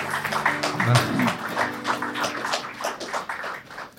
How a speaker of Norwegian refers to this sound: Jo, det er hyggelig med litt klapp.